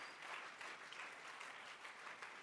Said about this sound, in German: Applaus